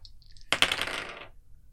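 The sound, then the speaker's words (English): A handful of dice clatters onto a hard table in one bright burst of rapid rattling clicks that settles within about a second. No one speaks. “many dice.”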